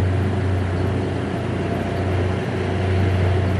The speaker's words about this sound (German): Menschen haben Spaß in diesem Boot auf dem Wasser. Da ist insgesamt tatsächlich nur der Fährmann. Deswegen ist das Boot auch so flink. Das ist richtig. So stromaufwärts.